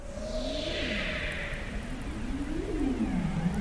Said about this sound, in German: Forscherinnen vom Alfred Wegener Institut haben nämlich acht Jahre lang am Rand des Südpols mit Unterwassermikrofonen nach Robben gelauscht. Mhm. Hört sich in etwa so an.